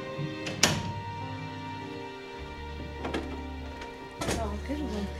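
An apartment door opens with a few sharp knocks and clunks of the latch and handle, spaced out over several seconds against a steady low hum.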